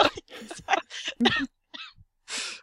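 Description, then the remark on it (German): Coughing: a quick run of harsh, breathy bursts, then a short pause and one more forceful cough at the end, loud with no other sounds around it. “So, hallo und herzlich hörst du auf zu husten.”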